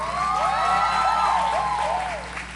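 A crowd claps steadily while high, rising and falling cheers and whoops ring out over the applause, holding loud and even before easing slightly at the end.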